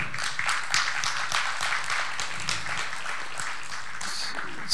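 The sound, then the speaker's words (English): A crowd at a church service claps its hands together in a steady, dense patter of applause that carries on throughout, moderately loud, with no one speaking over it. “Let, us give them all a hand clap again.”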